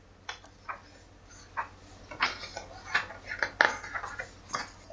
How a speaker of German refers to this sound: Das Blättern. Ja, ja, das ist doch sehr, Büchersymbol.